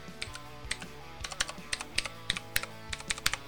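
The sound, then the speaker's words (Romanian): Rapid mechanical keyboard keys clicking in an irregular typing rhythm, each keystroke a sharp clack, with no voices present. “tastaturi ale, cărui, uh, ale căror uh, sunet de taste nu poate fi uitat clicul ăla specific și senzația la apăsare și dacă tot vorbim despre uh, click mecanic, ia să auzim.”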